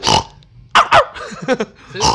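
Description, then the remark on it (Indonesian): A voice mimics the grunt of a black pig: a few short, rough, snorting bursts in a quick, uneven series, fairly loud, with a breathy rasp at the start and end. “Bunyinya gini.”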